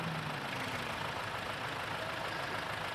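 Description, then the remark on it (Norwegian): Two tractors, one blue and one red, idle in the starting pit of a tractor race, waiting for the green light, with over 300 spectators on the hill: a continuous rumbling drone with a dense, noisy texture that holds at an even, fairly loud level throughout, with no voices. “Gutta venter på det grønne lyset, som skal sende en blå og en rød traktor ut av startgropa.”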